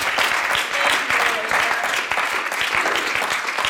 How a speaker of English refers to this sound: Come on, clap your hands to the Lord this morning.